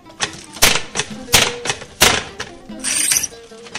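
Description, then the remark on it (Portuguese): A hand loom clatters as wool blankets are woven in Mértola in the old Berber tradition: sharp wooden knocks of the beater land at an uneven, working pace, with softer shuffling and creaking between them, fairly loud. “Este som vem de longe da tecelagem de mantas de lá das antigas tradições berberes na Mértula muçulmana.”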